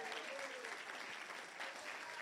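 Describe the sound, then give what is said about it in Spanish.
A large group at a church service claps continuously for the actors, a dense, steady wash of applause at a consistent level from start to finish, with no voices standing out above it. “Un aplauso a nuestros actores tremendos.”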